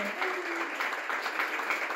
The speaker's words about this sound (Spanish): con estas amigas maravillosas que van a dar otro aplauso para que lo oigáis ahora sí, que no me, que no me lo he inventado, efectivamente.